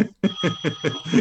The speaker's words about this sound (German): Im Hintergrund klingelt übrigens das Telefon mit der Wählscheibe. Hört sich so an.